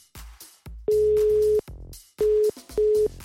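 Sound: telephone ringback tone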